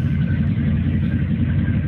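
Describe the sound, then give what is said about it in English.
A steady, deep sports car engine rumble, played from a video, idles continuously at a fairly loud level, with heavy low-end throb and no voices over it. “Oh, he's got a video. He's got a video. Um, you got some sound there. It's sounds nice. runs.”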